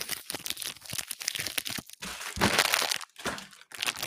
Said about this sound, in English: like the water bottle, the water bottle. Oh my god, the water bottle. Don't like that noise. Don't like it.